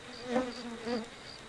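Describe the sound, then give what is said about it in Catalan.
Flies buzz persistently around a lifeless body, a droning hum that swells louder twice, then settles into a steady, fainter whine with no voices present. “El brunzí obsessiu de les mosques és l'únic so que competeix amb els grins i em condueix al cos inert”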